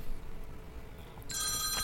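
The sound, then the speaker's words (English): A telephone begins ringing partway through, a bright, shrill electronic trill that sustains to the end over a low background rumble, with no one speaking. “And there's the phone.”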